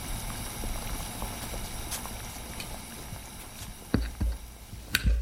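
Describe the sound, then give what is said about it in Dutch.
A handful of salt-tolerant potatoes boiling in lightly salted water in a small pan in a home kitchen, a steady bubbling and simmering hiss, with a couple of sharp clinks or knocks near the end. “Nou, daar liggen ze te koken in het pannetje zal mij benieuwen hoe dit smaakt.”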